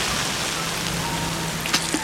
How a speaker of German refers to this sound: Ich zog meinen Regenmantel an und marschierte durch die Hintertür hinaus. Der Regen peitschte mir ins Gesicht.